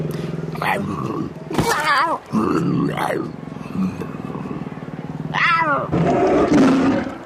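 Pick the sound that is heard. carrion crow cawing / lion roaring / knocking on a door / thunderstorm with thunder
lion roaring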